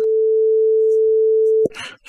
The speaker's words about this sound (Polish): E, to słyszymy taki jednorodny ton, dla jednych bardziej miły, dla innych mniej. I e, no, ten dźwięk jakby e, jest słyszalny, niczego nam tutaj złego, czy też jakoś szczególnie dobrego nie robi.